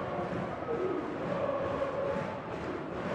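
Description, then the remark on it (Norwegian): A large football stadium crowd chants and cheers steadily during a match between Rosenborg and TFK, a dense wash of many voices with a sung chant rising through the roar, sustained and fairly loud throughout. “Publikum med kjernen skaper et bra liv.”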